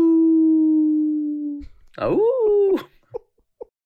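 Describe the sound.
A person imitates a dog's howl, holding a long steady tone before sliding into a wavering, rising-and-falling howl, followed by a couple of short vocal yelps. Fairly loud.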